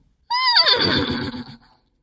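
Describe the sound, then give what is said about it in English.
A single loud whinny done by a human voice imitating a horse for a silly cowboy-themed radio ad, starting high and sliding down into a shaky, quavering neigh that trails off after about a second and a half. “I do a goofy country accent and a horse whinny in it.”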